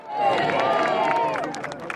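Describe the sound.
Thousands of Britons in front of Buckingham Palace applaud the arriving new king, a dense patter of clapping mixed with cheers and raised voices that stays loud and steady throughout before easing slightly at the end.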